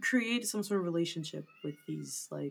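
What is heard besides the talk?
cat meowing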